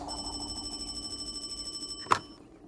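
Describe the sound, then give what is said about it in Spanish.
A telephone rings with a steady, rapidly trilling electronic tone for about two seconds, then cuts off with a sharp click as the receiver is lifted and the call is answered. No one speaks. “Stephen toma el teléfono.”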